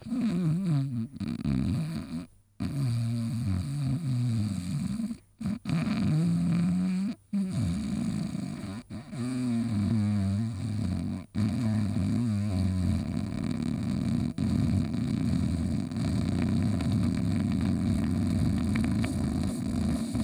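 Loud, uneven snoring: rough, rattling low rumbles broken by short gasping pauses, settling into a steadier droning snore for the second half, with no talking.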